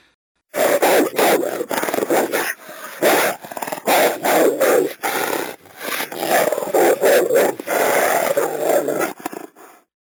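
Wolves growl and snarl in a continuous run of rough, throaty bursts, fairly loud, lasting nearly ten seconds with brief gaps between outbursts and no talking.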